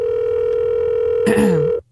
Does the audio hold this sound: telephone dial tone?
yes